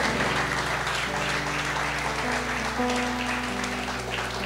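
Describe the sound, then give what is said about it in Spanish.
A crowd applauding for Christ steadily throughout, dense clapping from many hands, with sustained low musical tones underneath. “Denle un aplauso a, a Cristo.”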